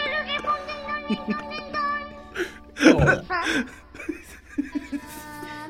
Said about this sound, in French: Ah, il y a du reverb, hein? C'est bon.